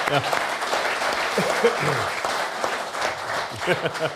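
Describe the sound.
Sustained audience applause, a dense, steady wash of many hands clapping at a fairly loud level, with some voices mixed in beneath the clapping throughout.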